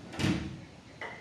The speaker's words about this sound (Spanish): disculpen el ruido de la puerta, es el viento.